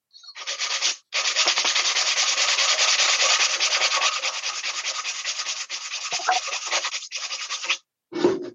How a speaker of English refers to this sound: I'm just sanding to produce a nice fine dust